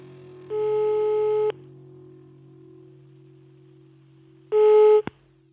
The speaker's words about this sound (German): Also, bleibt mal dran, ich rufe den mal an.